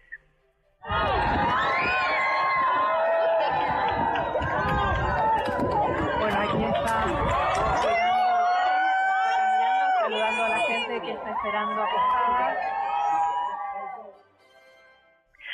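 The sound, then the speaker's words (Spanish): A dense street crowd cheers and shouts in greeting as the British monarch appears among them, many overlapping voices with high excited calls and whistles, loud and sustained for about thirteen seconds before fading away. “Escuchemos un poco el, el momento en que aparece el monarca entre la gente.”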